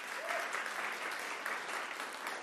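An audience claps steadily throughout, a dense, continuous wash of many hands with no pauses, fairly loud and even, with a faint voice briefly audible early on.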